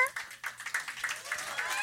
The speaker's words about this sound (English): a round of applause, warm round of applause. Warmer.